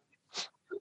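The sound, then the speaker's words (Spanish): A single short sneeze: a sharp, breathy burst of air followed by a brief voiced tail, fairly quiet and heard on its own without any talking. “Jesús. Jesús.”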